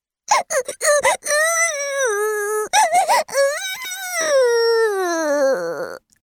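A voice imitates Sparky, a young dragon, wailing in terror after the little bed broke and his brother crashed to the ground: a few choppy, sobbing bursts, then a long, loud, quavering wail that slowly sinks in pitch before cutting off.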